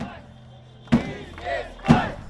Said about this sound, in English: Meanwhile, in the east of Russia, people were also out in the streets, rallying against the Kremlin and cheering protesters in Belarus.